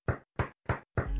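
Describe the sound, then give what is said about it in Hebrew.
Four firm, evenly spaced, loud knocks on a door, with a short ringing tail after the last one and no voices. “תקשיבו לזה! קונים דלת איכותית של פנדור ומקבלים את הפרזול מתנה.”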